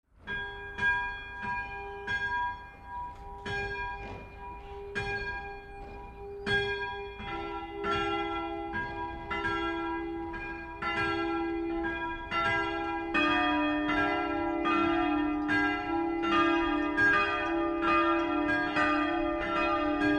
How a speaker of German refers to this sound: Vier Glocken schallen aus dem Zwiebelturm der evangelischen Simon- und Judaskirche in Malesreuth, dem ehemaligen Weberdorf im Frankenwald.